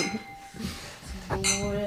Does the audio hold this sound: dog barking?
no